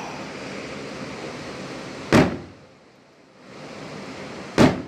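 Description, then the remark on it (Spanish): Two sharp fireworks bangs burst out a couple of seconds apart, each with a short echoing tail, over a steady rushing crowd or outdoor background that dips briefly between them, in Ixtapa and Zihuatanejo, Guerrero. “Eso que escuchan son fuegos artificiales.”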